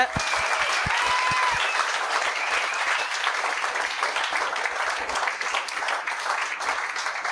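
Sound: applause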